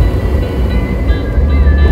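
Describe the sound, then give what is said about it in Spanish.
Heavy engine rumble from two big trucks, with the speaker between them, a loud, steady low drone with a faint whine above it, filling the whole moment without a break. “Oh, estoy en medio de dos camiones.”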